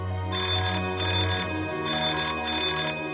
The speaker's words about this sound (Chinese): 丽梦用力按床边的电铃